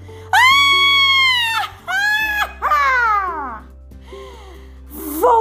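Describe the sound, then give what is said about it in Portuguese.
A voice imitates a furious witch's scream: a long, loud, shrill shriek followed by shorter cries, one sliding downward, then a few fainter squeals. “A bruxa ficou furiosa e soltou um grito.”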